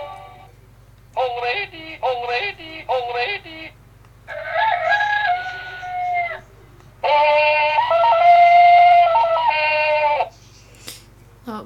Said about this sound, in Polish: I teraz on tu ma 10 różnych alarmów. I ja je najpierw pokażę.